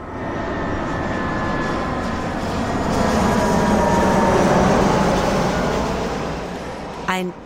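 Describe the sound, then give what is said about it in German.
An airplane roars past overhead, a broad steady engine rumble that swells to a peak midway and then slowly fades, with a brief burst of another sound right at the end. “vorbeifliegendes Flugzeug.”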